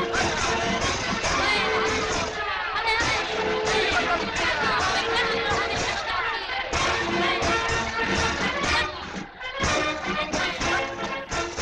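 Loud, sustained applause from an audience, dense clapping mixed with cheers and whoops, holding steady for about eleven seconds with brief dips in intensity.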